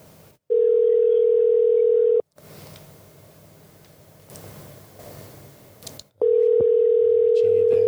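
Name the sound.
phone call ringing tone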